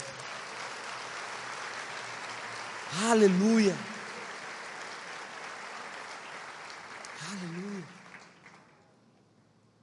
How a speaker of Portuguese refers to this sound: Ah, você pode dar uma salva de palmas ao Senhor Jesus?